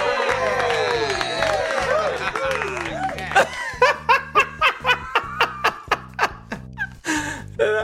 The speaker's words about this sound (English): Let me just play the underwhelming sarcastic sound effect. Here we go.